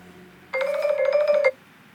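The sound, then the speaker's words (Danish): A phone rings with an incoming call from a colleague calling back: a single bright electronic tone, fairly loud, warbling steadily for about a second before cutting off, with no voices over it. “Der går ikke ret lang tid, så ringer min kollega tilbage.”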